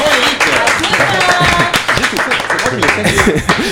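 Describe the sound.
A studio audience on a radio show aired on Énergie claps and applauds steadily for the guest of the week, a dense crackle of hands, while voices talk and call out over the noise.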